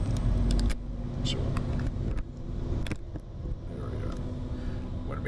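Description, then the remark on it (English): A big truck comes up from behind and rumbles past the car in long traffic approaching the George Washington, a heavy low engine drone that is loudest at the start and then holds steady, with occasional light clicks and rattles inside the car. “Big, big ass truck coming up behind us.”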